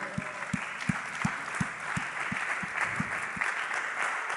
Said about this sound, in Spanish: Aplaude, por favor.